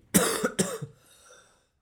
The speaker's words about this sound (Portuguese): bem, tenho estado com boa tosse.